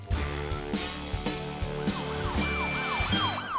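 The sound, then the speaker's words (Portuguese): A police car siren wails in repeated rising and falling sweeps, growing louder as the car approaches at full speed, over a steady low engine rumble with rhythmic pulses underneath. “Aí vem o carro da polícia! E vem a toda a velocidade!”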